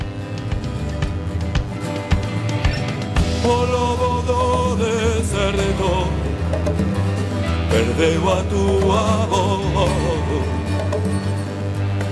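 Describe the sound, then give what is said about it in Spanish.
Steady, full-sounding music plays throughout at a moderate, even volume, with a deep bass foundation and flowing melodic lines weaving above it, and no one talking over it. “Como todos os miércoles tenemos unha música de fondo a nuestras palabras”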